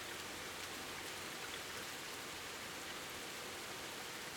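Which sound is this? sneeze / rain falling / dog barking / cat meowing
rain falling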